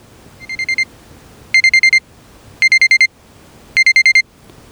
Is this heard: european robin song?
no